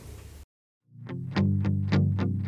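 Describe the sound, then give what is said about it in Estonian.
After a brief burst of sound and a short pause, an Estonian-language pop-rock song kicks in with distorted electric guitar chords and steady, punchy drum hits, fairly loud, no vocals yet. “aga täna siis eh, võiks eh, nii-öelda pinge kruttimiseks eh, kuulata ühe sihukese mõnusa eestikeelse laulu”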